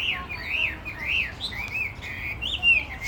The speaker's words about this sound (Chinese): 现在追着这只画眉画眉鸟，就是传统的画眉鸟在跑，这是它的唱歌的声音。